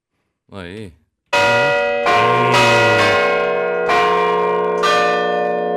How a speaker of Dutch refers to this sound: De kerkklokken. Dit zijn, eh, dit zijn de kerkklokken. Eh, ik weet eigenlijk niet eens van welke kerk, maar het is een, een Noordwijks kerkje. Of kerkje, dat is een kolossaal ding, man, dat ding verschrikkelijk groot.